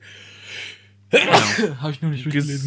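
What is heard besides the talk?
sneeze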